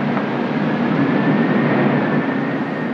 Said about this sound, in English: A storming rain, thunder, a hurricane screech as it approached,